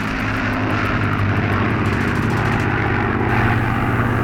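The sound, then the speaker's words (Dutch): A propeller fighter plane drones steadily and loudly throughout during an air battle over the woods at Laren, Gelderland, on a spring night in the war with Germany. Its low engine hum holds strong harmonic bands with a faint rhythmic pulsing, with no voices present. “Boven de bossen is een luchtgevecht gaande.”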